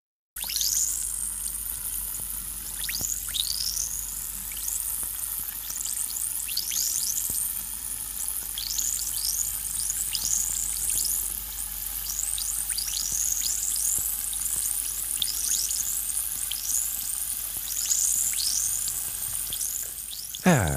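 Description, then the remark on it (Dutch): An effervescent vitamin tablet fizzes steadily in water, a dense, close-up hiss of countless tiny bubbles crackling and popping for about twenty seconds, with no voices. “Het is een eh, bruistablet, weet je wel, zo'n vitamine-tablet.”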